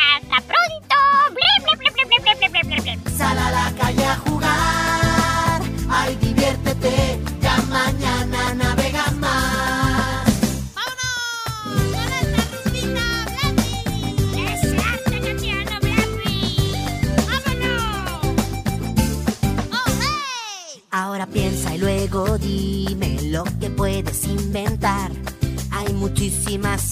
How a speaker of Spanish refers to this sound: Claro, y mientras tanto, bueno, pues ahí dejamos sonando tu rumba.